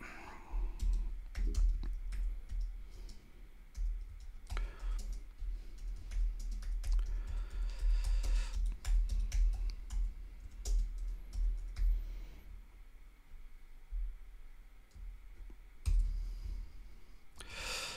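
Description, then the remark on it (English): Computer keyboard typing while entering football players' names into a poll: irregular bursts of sharp key clicks and taps, pausing briefly and then resuming, over a low background rumble. “There's no way I'm spelling out Kvaratskhelia. I'm just putting in a, a shorthand version of that.”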